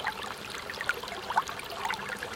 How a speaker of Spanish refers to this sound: Cuando el río suena